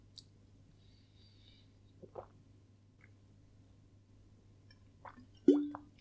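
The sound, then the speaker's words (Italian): Someone drinks water: a few soft wet clicks and sips, then a louder gulping plop near the end, over a steady low hum. No one speaks. “Adesso che ho la gola che proprio devo ribere l'acqua”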